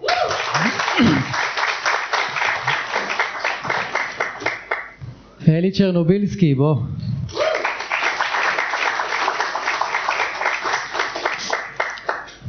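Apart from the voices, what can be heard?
audience applause and clapping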